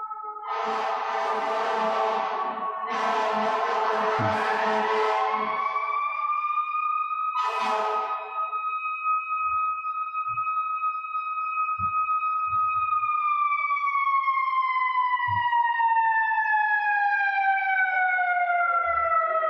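Emergency vehicle sirens wail over steady traffic rumble, starting with choppy bursts, then a long sustained tone that slowly slides downward in pitch as the trucks pass. No one speaks.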